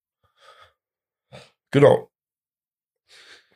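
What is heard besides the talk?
cough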